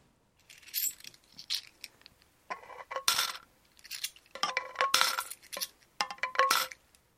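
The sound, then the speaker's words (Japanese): Coins clink and rattle as they drop into a savings jar, a series of bright metallic jingles in irregular bursts, some with ringing tones, with no talking. “えー、っとメッセージ「この瓶がいっぱいになったら何を買おうか楽しみです」ですね”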